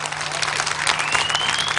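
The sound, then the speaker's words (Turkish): An audience claps steadily, a dense, continuous wash of many hands with no voices rising above it, lasting just under two seconds at an even, fairly loud level. “Büyük bir alkış istiyorum önce.”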